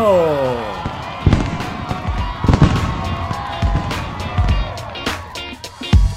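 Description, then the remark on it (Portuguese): Fireworks go off in a busy volley: a whistling rocket rises at the start, then sharp booms and crackling bursts pop at irregular intervals over a murmur of voices in the background. “este aqui é comemorativo a um ano de Balascast e Fogo de Artifício!”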